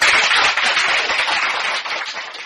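Sustained audience applause welcoming a speaker to the stage at an event in a seaside city, a dense wash of many hands clapping at once, loud and steady with no voices over it, easing slightly toward the end.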